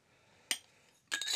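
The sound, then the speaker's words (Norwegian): Glass bottles and drinking glasses clink against a tabletop as three glasses and three beers are brought out for tasting local beers from Grenland and Telemark: one sharp knock, then a short flurry of bright ringing clinks, fairly loud, with no voices. “Så i utgangspunktet så har jeg hentet fram tre glass, og så har jeg hentet fram tre øl.”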